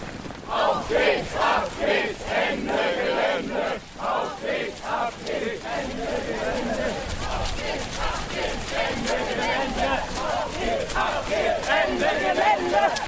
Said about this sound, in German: Plötzlich wird die Gruppe laut und beginnt zu rennen.